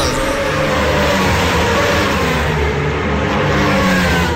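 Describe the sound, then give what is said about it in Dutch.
A sport motorcycle engine revs loudly and continuously, its roar dense and sustained for the whole few seconds with no voices over it. “Oh, nou, zet, hem nog gewoon wat harder.”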